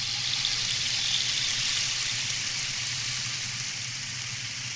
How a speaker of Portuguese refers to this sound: Quando inclinado para frente e para trás, o tambor produz sons que lembram ondas do mar. É só fecharmos os olhos que somos transportados para uma praia deserta e tranquila.